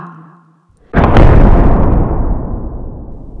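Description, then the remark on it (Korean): The heavy wooden great door of Noah's ark in a Bible story slams shut with one sudden, loud boom after a moment of faint low hum, then a deep rumbling echo slowly fades away. “보이지 않는 손이 조용하고도 신비롭게 방주의 큰 문을 닫을 때 노아는 결코 다시 볼 수 없는 세상의 아름다움을 한눈에 흘깃 보았어요.”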